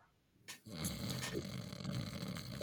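A loud, raspy snore drawn in close to the mic: a brief snort, then a long, rough, rattling inhale that rumbles steadily for about two seconds, with no talking.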